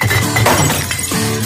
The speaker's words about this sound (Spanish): Reciclar las botellas de vidrio.